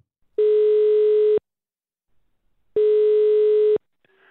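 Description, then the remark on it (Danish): A telephone ringing tone on an outgoing call placed by Radio 4 to a military historian: two steady, loud one-second buzzing tones separated by a short pause, heard alone, followed by a faint click as the line is picked up. “Lad os lige prøve at, høre et lille intro-pip her.”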